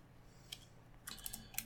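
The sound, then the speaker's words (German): Quick bursts of typing on a computer keyboard as someone notes down a timestamp for later editing: a lone key tap followed by a rapid run of clicky keystrokes, fairly quiet with no voices. “Ich schreibe mir eben die Minute rein, wo wir das machen, damit ich das beim Editieren dann später machen kann.”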